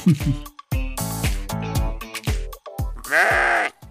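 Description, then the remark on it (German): Several sheep from a shepherd's flock of about 150 bleat in quick succession on a meadow at Darshofen in the Kerschbachtal near Parsberg, their wavering, overlapping calls loud, with a final long, strained bleat. “Und seine Schafe haben auch ihren Senf dazugegeben.”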